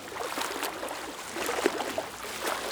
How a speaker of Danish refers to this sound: Hvis du har prøvet at svømme med en havfruhale på, så ved du sikkert, hvor svært det kan være. Fjæsing plasker rundt i bassinet, men kommer ingen vegne.